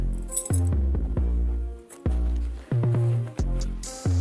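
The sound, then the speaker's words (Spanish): Metal house keys clink and jingle in several quick bursts, bright rattling hits with short gaps between them, and no talking. “Y las llaves de la casa.”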